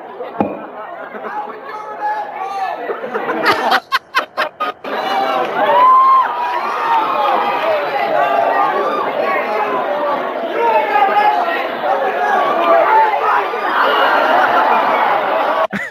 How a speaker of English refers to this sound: And the crowd sounds like they're throwing beer bottles. It sounds like the end of a beer tent in a small town where people are just chucking empties at the band.